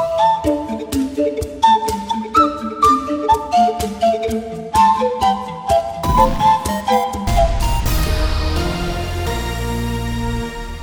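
A catchy pop tune played on a few empty bottles: hollow, ringing notes in a bouncy, steady rhythm, fairly loud, building toward fuller sustained tones near the end. No voices.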